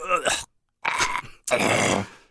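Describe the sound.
A man's voice lets out three strained, pained groans in quick succession, loud, the last one long and drawn out, with short silences between them, sounding like Captain Kettola being shot in the belly in the film Okänd soldat.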